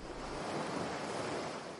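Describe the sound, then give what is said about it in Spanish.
Steady rushing surf washing over a pebbly beach beside a jetty, a broad continuous hiss with soft grinding texture and no distinct breaks, joined by a light breath of wind. “Junto al embarcadero, en una zona de playa pedregosa,”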